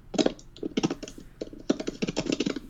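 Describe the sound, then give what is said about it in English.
Rapid typing on a computer keyboard, a dense flurry of quick key clicks in short bursts with brief pauses, moderately loud, with no voices. “what is that tapping sound? That's Andrew typing at eight thousand miles an hour.”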